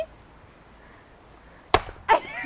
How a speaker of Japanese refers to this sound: 爽快ナタを入れて、コンコンコンっていうのを体験したことあったんですけど、こっちの方がやった感出ますね